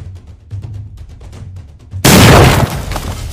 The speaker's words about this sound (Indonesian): Kue pernikahan di atas meja itu meledak. Teriakan panik terdengar di seluruh penjuru taman. Tidak besar, Yuri adalah master pembuat bom. Dia tidak membutuhkan ledakan besar, dia hanya membutuhkan ledakan yang akurat.